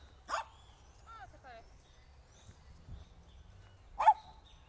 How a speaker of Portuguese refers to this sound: nítido de ver que esse latido não foi nenhuma das duas cachorras, até porque a Nina não ia dar um latidinho desse, né?